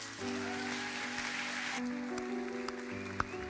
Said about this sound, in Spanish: Le podemos dar un aplauso al Rey, a Jesús,